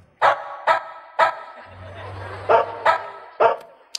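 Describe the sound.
A human voice imitates a dog barking: six short, sharp woofs, three quickly in a row, a brief pause with a low hum, then three more, close and fairly loud.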